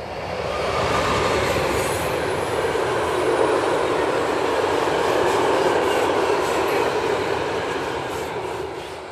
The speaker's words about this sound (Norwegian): Det drønner etter jernbane her, og hele bakken rister etter at et stort tømmertog eh, passerte oss nå.